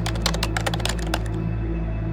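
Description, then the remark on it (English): Rapid keyboard typing, a quick run of light clicks and taps for about a second and a half as the next prompt is entered, then stopping, over a steady low hum. “I shook my head and entered the next prompt.”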